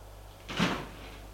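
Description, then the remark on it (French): A girl opens the exit door of a hotel at night with a single short scraping clunk that swells and fades within half a second, over a steady low hum. No one speaks. “La fille ouvre la porte.”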